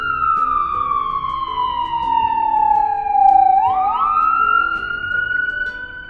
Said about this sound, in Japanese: あ、今なんか、あれが救急車通ってるな。